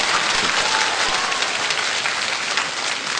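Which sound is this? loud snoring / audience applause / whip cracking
audience applause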